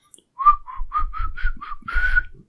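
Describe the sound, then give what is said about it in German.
A short whistled melody of about seven quick tonal notes, clear, the last note held longer with a slight wobble, no talking over it. “Und der pfeift nämlich die Melodie, dieses”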